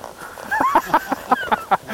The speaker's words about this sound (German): Mein Pferd hat mich gerade angewiehert.